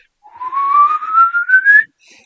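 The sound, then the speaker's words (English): A single loud rising whistle, clear and tonal, sweeping upward in pitch over about a second and a half before cutting off, heard outdoors a few hundred yards away, with a faint echo of it trailing afterward. “And within about a second of that sound, and almost simultaneously, there were two of the identical whistles or similar whistles to our east and our west.”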